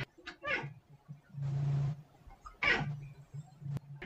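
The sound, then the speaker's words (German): A pet cat meows several times, drawn-out cries with rising and falling pitch separated by short pauses, plus a brief breathy hiss-like noise in between; no one speaks. “Also es sieht ganz aus, als hätte ich einen neuen Interviewpartner, meine eigene Katze.”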